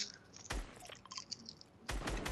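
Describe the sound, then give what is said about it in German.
Moist chewing of Schokobon chocolate candy, with two loud crunchy bursts at the start and end and softer squishy mouth sounds in between; no talking. “Ich esse jetzt Schokobon.”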